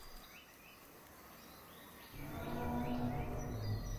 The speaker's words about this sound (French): vous vous mettez au calme, au bruit, euh, au rythme de, des bruits de la, de la jungle. Vous entendez au loin des, piaillements, des, des hurlements, des cris qui sont pas forcément tous rassurants.